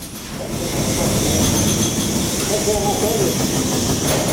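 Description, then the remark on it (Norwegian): Heavy drilling roars steadily inside a dark emerald mine tunnel where soot-covered workers bore into the rock, a dense, loud, unbroken grinding din with brief metallic squealing tones partway through and a faint voice beneath. “Du, det, det, bråker, og så er det mørkt, ikke sant. Og så er det noe som regner fra fjellet, og så står disse her gutta her sånn fulle av sot, og så borer inni.”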